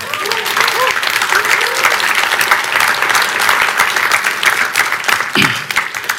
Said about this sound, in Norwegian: Gi han en applaus.